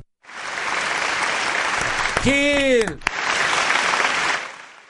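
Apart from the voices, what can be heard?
audience applause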